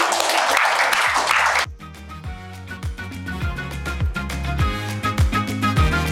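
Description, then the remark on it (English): A short, loud burst of audience applause, dense and steady clapping, cuts off abruptly after under two seconds and gives way to upbeat music with a thumping beat and bass. “thank you ever so much let's have a round of applause for these wonderful people”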